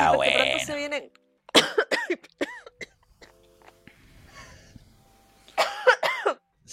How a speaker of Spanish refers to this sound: Eh, se atragantó, estaba haciendo pelotas de saliva con... con... pelotas de saliva para hacer una guerra de saliva con, papel.